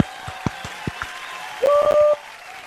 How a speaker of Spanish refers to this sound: Un aplauso para ellas, bienvenidas.